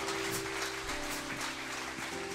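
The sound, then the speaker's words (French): A church audience claps steadily for Jesus in a dense, continuous wash of applause, fairly loud and even throughout, with a faint sustained tone humming underneath. “À n'importe quel moment, vous pouvez applaudir Jésus parce que c'est le grand juge à n'importe quel moment.”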